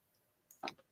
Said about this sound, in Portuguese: porque esse relógio me deixa um pouco nervosa